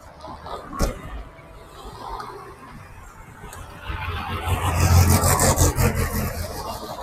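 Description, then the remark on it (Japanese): A Golf sedan car rolls along a street, its low engine rumble and tire noise swelling over several seconds before easing slightly, with faint outdoor ambience and no talking. “今止まったのはゴルフのセダンなんですけど、そうすると、前から見ると、タクシーか乗用車かわからないんで、よく走ってると手を挙げられますね。”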